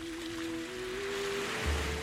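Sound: sea waves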